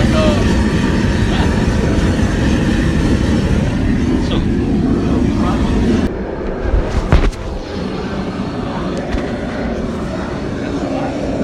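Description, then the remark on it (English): A propane cooker burner fires up to cook corn, a loud, steady jet-like roar that runs continuously, dips briefly about halfway, then resumes with a few clunks and rattles. “We're, the jet engine's firing back.”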